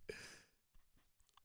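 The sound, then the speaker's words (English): A single sharp snort bursts out loudly at the start, a noisy nasal blast that fades quickly into a few quieter breathy sounds. “You just snorted?”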